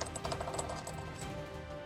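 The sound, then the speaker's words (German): Dice are rolled across a table during a game, filmed by a dice camera, rattling in a quick burst of sharp, clicking impacts that cluster early, then settle into a softer, steady background without any talking. “Der explodiert nochmal. Also sind das auch 8.”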